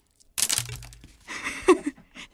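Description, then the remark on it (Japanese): A burst of roasted soybeans thrown and scattering during Setsubun bean-throwing, rattling and skittering across a hard surface in a quick cluster of small clicks that trail off unevenly over a couple of seconds. “何の時間ですかこれすごい私ねこんなあの目の前に豆バラバラの状態初めて見ました”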